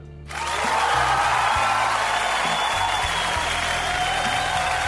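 Steady audience applause rises quickly after a brief quiet start and sustains as a dense, continuous wash of clapping for several seconds, with a low hum underneath and no talking.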